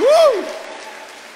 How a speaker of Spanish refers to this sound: Dale la ofrenda de palmas al Rey de Reyes y Señor de Señores.